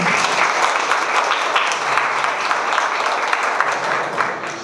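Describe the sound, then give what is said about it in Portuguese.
A crowd applauds the president of the Academia de Letras do Brasil, Seccional Araripe, Ceará, steadily for several seconds, a dense, even wash of many hands clapping at a fairly loud level, fading slightly at the very end. “Vou pedir um aplauso para ela.”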